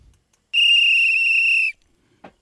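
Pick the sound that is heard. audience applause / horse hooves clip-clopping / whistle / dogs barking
whistle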